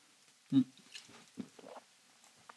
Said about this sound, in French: Attendez, je prends une petite gorgée d'eau.